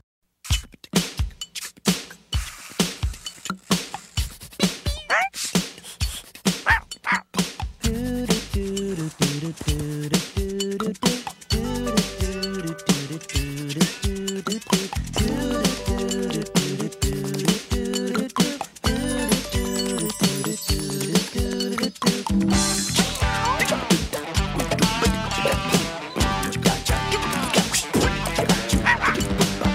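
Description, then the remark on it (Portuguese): The quirky, bouncy theme tune of the cartoon Doug plays loud for the full stretch, with punchy rhythmic accents and playful yip-like sounds woven through the music. “vamos ficar com esse genérico muito engraçado uma música bem diferente do que, do que estamos habituados em genéricos desta altura.”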